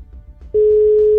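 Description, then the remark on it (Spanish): A steady, loud ringing tone of an outgoing phone call starts about halfway through and holds unbroken to the end, a single pure pitch over faint low background rumble. “Vamos a llamar, ¿eh? Sí, sí. ¿Listos? Llamando.”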